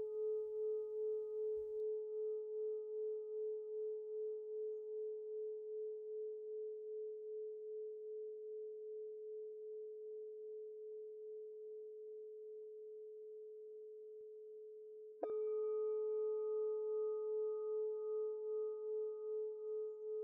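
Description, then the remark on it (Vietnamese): A meditation bell rings with a long, steady hum that slowly pulses as it fades, then is struck again near the end and swells back to full resonance. No voices are heard. “Tôi để cho tiếng chuông ngân vang trong trái tim mình.”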